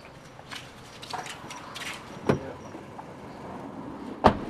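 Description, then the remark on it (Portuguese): A car rolls up and idles with a steady low engine rumble at half past six on a Sunday morning in Rio do Fogo, arriving to pick people up, broken by two sharp clunks like a door or window, and no one speaking. “a gente está esperando o Guilherme passar de carro”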